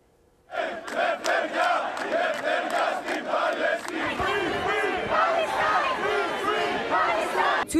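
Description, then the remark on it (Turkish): A large crowd at a protest against Israel chants loudly in unison, voices rising together in rhythmic shouts that swell and blur into a sustained roar of many people. “Türkiye'nin dört bir yanından yükselen seslere başka ülkelerden gelen sesler de eklendi.”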